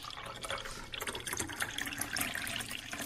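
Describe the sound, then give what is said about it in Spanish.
Water pours steadily from the tap of a MAVE water purifier for a few seconds, a continuous splashing gurgle with bubbly highs and no voices. “Oigan, conoce los nuevos purificadores de agua MAVE.”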